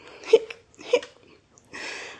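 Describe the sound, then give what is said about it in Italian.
A voice acts out the hiccuping sobs of Funghetto, a little mushroom in a story: two sharp, catching gulps about half a second apart, then a long shaky breath. Fairly loud, with no other sound around it. “Alla fine Funghetto capitolò e spiegò a gran singhiozzi il perché fosse così taciturno, e non certo perché era troppo bello.”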